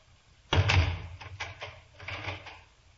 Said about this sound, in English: You may leave the room and lock the door.